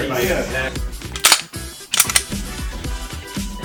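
Two or three sharp, loud gunshot cracks burst out in the middle, spaced under a second apart, at a shooting range in the United States, over a steady low rhythmic backing of music.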